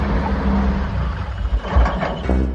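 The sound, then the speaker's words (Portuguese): A store's truck engine rumbles steadily as it pulls up at a couple's door, a deep low drone with mechanical whirring that swells slightly, with no voices. “Uma zoada de caminhão chegando, será que é ele?”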